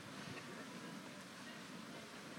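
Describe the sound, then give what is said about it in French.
A steady, continuous rush of wind, a broad airy roar that holds at an even level throughout with no gusts or pauses and no voices. “Il y, a le bruit du vent, ça c'est sûr.”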